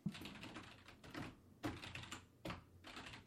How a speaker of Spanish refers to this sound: Así se escucha el pinche teclado. Nada más.